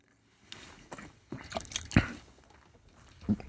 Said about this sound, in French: Ça prend bien du juice. On veut t'entendre avaler.